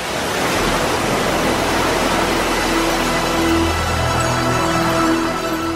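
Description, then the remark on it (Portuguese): Rough sea waves of the Mar de Fora, on the side facing Africa, churn in a loud, unbroken roar of surf, steady throughout, with a faint low hum running underneath. “Aqui o mar é agitado.”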